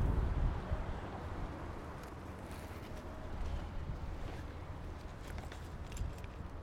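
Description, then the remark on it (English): Strong wind buffets the microphone outdoors as someone steps out to feed a parking meter, a steady, loud low rumble with gusty surges and faint street noise underneath. No one speaks. “Oh, man, it's windy.”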